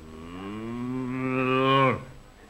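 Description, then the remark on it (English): A single long cow moo, loud, rising slightly in pitch and swelling for about two seconds before cutting off abruptly, with no talking around it, as a milking pail and stool are set up beside the cow. “Now, Bossy, hold still while I fix the pail and stool. There. That's a good cow.”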